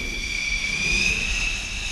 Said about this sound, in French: Une pontée de quatre chasseurs s'apprête à décoller, véritable chorégraphie sur le pont entre ceux chargés de fixer les avions à la catapulte et ceux qui donnent le départ, on les appelle les chiens jaunes.